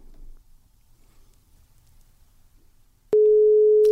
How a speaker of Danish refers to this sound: Og hende har vi, øh, hende har vi en telefonlinje til, så øh, nu vil vi prøve at ringe hende op. Lad os prøve at ringe til hende.